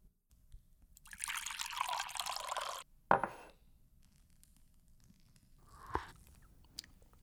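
Hot sage tea is poured into a glass in a steady, hissing stream for about two seconds, followed by a sharp clink and a few soft knocks afterward.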